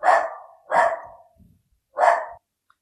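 A dog barks three times, loud: two quick barks in succession, then a short pause before a final one. No one speaks.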